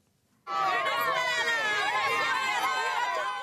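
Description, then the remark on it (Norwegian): A large crowd of several hundred thousand supporters shouts and cheers together at a night-time political rally for President Hugo Chávez in central Caracas, Venezuela, a dense, loud wall of overlapping voices that bursts in abruptly and holds steady, with rising and falling calls layered through the roar. “De roper på sin store fører.”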